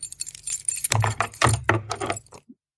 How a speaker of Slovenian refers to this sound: Hm, hvala za ključe.